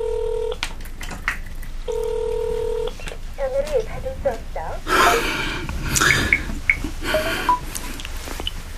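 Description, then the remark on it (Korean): Two sustained telephone keypad dialing tones sound close and clear, each lasting about a second with a pause between, followed by muffled voices and handling noises. “전화기가 꺼져 있어.”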